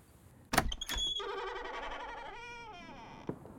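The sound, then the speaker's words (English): A lock clicks sharply twice as the little white front door of a house is unlocked with keys, then the door swings open into a vestibule area with a long creaking groan that rises and falls, ending in a soft thud. No voices. “The door opened into a vestibule area.”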